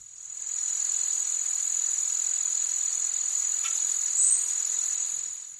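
Insects buzz in a steady, high-pitched drone that fades in, holds evenly for several seconds with a slight swell near the end, then tapers off. No voices are present.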